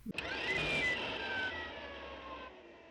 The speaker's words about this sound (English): Uh, it's kind of letting it tail off, I guess. Decelerate. Yeah, exactly. It, make, it makes this weird kind of like it, like a balloon being let down. because has this sort of sound.